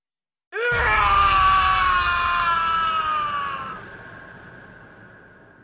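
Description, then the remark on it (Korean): A single loud, raw scream from a man standing alone amid a crowd of onlookers bursts out suddenly and holds for about three seconds, its pitch sliding slowly downward before it breaks off into a fading, echoing tail. “잠시 멈췄다가 폐안까지 울릴 만큼 큰 소리로 다시 또 악을 썼다.”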